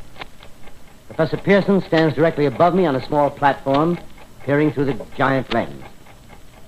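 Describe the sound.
Steady, regular ticking from the vibration of the clockwork mechanism of a huge telescope at night, heard alone at first and then continuing faintly beneath a man speaking.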